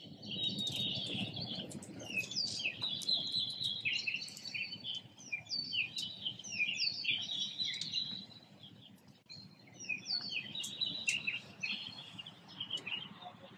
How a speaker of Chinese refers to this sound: 此次，刘毅老师将和我们分享他于上海封控之初一时兴起在阳台上录制的鸟鸣声，是如何成长为一个大众一起参与与分享鸟鸣声的可持续的公共艺术项目——鸟鸣电台